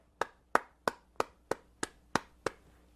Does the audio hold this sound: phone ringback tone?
no